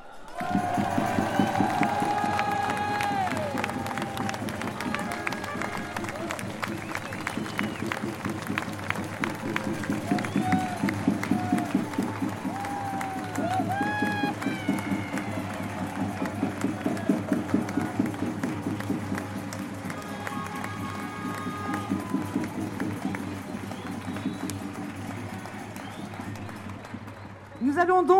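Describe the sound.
A large crowd claps and cheers steadily for nearly half a minute, welcoming the occupants of Gralin with a thunder of applause; a dense, loud wash of applause with shouting voices mixed in throughout.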